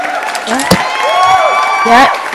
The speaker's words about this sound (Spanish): Vamos a empezar con un aplauso